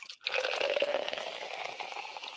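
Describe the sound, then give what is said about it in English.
A drink is poured steadily into a glass, a continuous splashing stream with a faint rising ring as it fills, lasting a couple of seconds with no talking. “we're drinking.”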